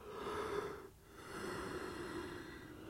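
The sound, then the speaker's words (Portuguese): A person yawns, a long, drawn-out voiced yawn with a brief catch of breath partway through before the groaning tone carries on steadily to the end. “E vou bocejar agora.”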